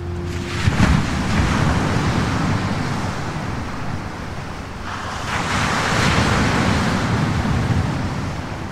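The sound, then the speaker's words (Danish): Steady roar of sea waves breaking on the coast at the small town of Hvide Sande in winter, with gusty wind buffeting the microphone; the surf swells louder around the middle and stays dense and continuous with no voices. “hvordan det er at leve i den lille by ved det store hav om vinteren, når turisterne er væk.”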